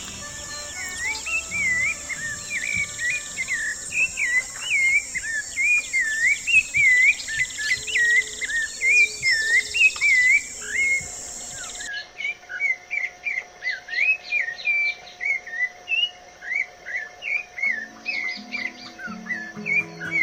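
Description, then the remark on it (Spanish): A bird sings a steady run of simple, sweet, clear notes, repeated in quick rhythmic phrases over a faint insect-like hiss, with no voices. “Este canto compuesto por notas sencillas, dulces y potente.”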